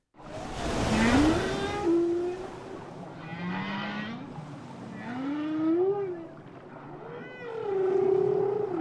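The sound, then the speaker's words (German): Long, sweeping whale calls rise and fall in pitch across several moans, with a steady wash of water noise underneath; no one speaks. “Wahlgesänge. Sehr gut,”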